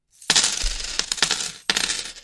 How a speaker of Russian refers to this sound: Вот этот звук монет всегда должен означать, а, сколько Э, то есть после этого звона монет я должен вам рассказать, сколько людей пожертвовало на подкаст э, денег